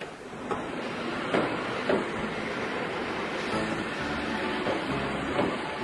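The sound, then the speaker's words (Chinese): An ordinary passenger train rolls into a station with a steady broad rumble and hiss, broken by several sharp metallic clanks and clacks spaced a second or so apart. No one speaks. “哎，车子来了，准备上车喽。”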